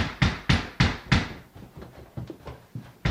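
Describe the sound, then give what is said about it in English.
A screen door at a front door slams repeatedly in quick succession in the middle of the night as someone tries to get in: four loud rattling bangs followed by a run of softer, irregular knocks, with no voices. “They are slamming the screen door.”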